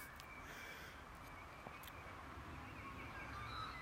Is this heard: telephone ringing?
no